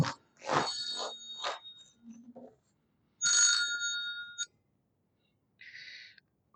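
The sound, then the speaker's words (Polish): A phone ringtone plays in three bursts separated by short pauses, bright electronic tones warbling at a high pitch, fairly loud, with no talking over it. “Specjalnie wyłączyłem wszystkie dzwonki, a jeszcze się”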